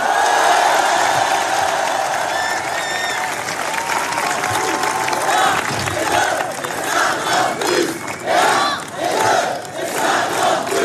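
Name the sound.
crowd applauding and cheering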